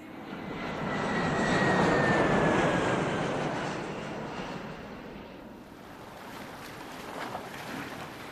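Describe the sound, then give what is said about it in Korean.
A steady airplane engine roar during a flight to Jeju Island, swelling loudest early on with a faint high whine, then easing into a broad, even drone; no voices. “홀로 제주도 비행기에 올랐습니다.”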